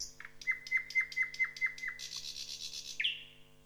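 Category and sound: bird, nightingale song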